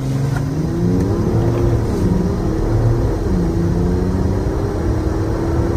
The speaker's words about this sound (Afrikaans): Die 3 liter turbo diesel klink nogal soos 'n petrol V8 wanneer jy hom wegtrap. 258 kW en 700 Nm windkrag word deur 'n 8-spoed outomaties na al vier wiele gestuur.